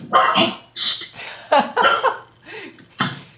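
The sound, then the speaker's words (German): A dog named Tashi barks repeatedly in short, sharp bursts, about seven yaps in quick succession, loud with brief gaps between them. “Tashi weiß genau, dass wir mit unserer Sendung anfangen und beschließt zu bellen.”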